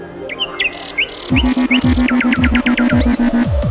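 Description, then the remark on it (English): Busy birdsong of quick, repeated chirps and sharper squawky calls, fairly loud, with a steady low rhythmic pulsing joining underneath partway through. “Just a random cacophony of squawks and chirrups.”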